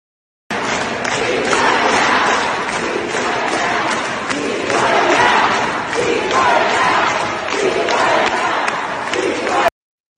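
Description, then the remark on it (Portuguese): A large protest crowd of Jewish demonstrators chants in solidarity with Palestinians during an occupation of the Capitol in the United States, loud rhythmic surges of many voices rising and falling in waves with scattered shouts and claps mixed in, continuous for about nine seconds. “Essa uh, chama bastante atenção, justamente porque uh, é um grupo de vários judeus que lutam pela paz e que afirma que esse foi o maior protesto judaico em solidariedade aos palestinos na história aqui dos Estados Unidos”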